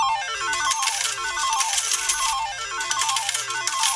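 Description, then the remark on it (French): A bright, electronic slot-machine jackpot jingle plays with rapid repeating melodic runs and shimmering chimes, loud and continuous over a steady low hum, with no one speaking. “Ah, mais vous entendez Mais oui, mais oui, il semblerait que nous soyons face à un jackpot”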